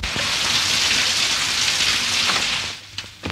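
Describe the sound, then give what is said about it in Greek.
Steady rain falls in a dense, even hiss, fairly loud, with scattered drops pattering on a surface before it eases off near the end. No one speaks. “θα πάω όξα με τη βροχή.”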